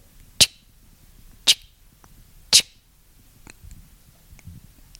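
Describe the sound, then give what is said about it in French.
Three sharp, distinct ticks of a clock land about a second apart, fairly loud, then fade into a quiet stretch with only faint low rustling. “mais ça, me fait rire parce que il y a une horloge devant moi et elle fait”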